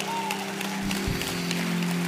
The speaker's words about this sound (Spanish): Aplaude.